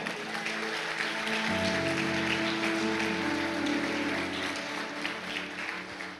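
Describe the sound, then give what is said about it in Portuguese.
An audience claps steadily during a church sermon, applauding God, a dense wash of applause that stays loud throughout, with a sustained low tone, like an organ or keyboard, holding underneath. “Alguém pode dar um glória a Deus e aplaudir o Eterno aí, irmão?”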